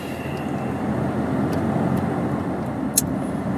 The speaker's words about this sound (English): All right, come on, Range Rover. Or is this a Land Rover? Same difference, right? Range Rover, Land Rover.